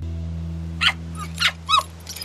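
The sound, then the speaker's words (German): Several short, high-pitched squeaky barks or yips from a young vixen (female fox) in a radio play, four bursts spaced irregularly over a steady low hum, moderately loud, with no talking. “Also, Entschuldigung, war das nicht ein Quiekbellen? Wie ein Delfin.”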